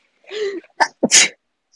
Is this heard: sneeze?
yes